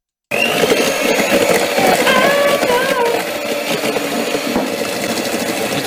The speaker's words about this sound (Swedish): Nej, det var ju en elvisp grabbar.